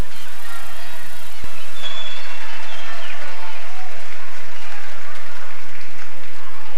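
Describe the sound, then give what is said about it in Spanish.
Loud, dense applause from a concert audience welcoming a musician onstage with a band, a steady wash of many hands clapping that stays strong for the whole stretch and eases slightly toward the end, with no voices standing out. “Un gran saque de aplausos para”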